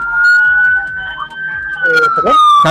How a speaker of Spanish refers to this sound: es una locura lo que se escucha ahí. Son todas las patrullas, ambulancias y demás eh, servicios de seguridad. ¿Por qué tanto alboroto, eh?